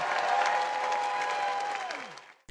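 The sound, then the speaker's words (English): A large debate audience stands and applauds, cheering loudly for Bernie Sanders: a dense wash of clapping with a sustained whistle-like tone rising through it, before the noise fades and cuts off abruptly. “And the two people that were disappointed, obviously, in Pete Buttigieg's answer were behind Bernie Sanders, standing up and cheering for him.”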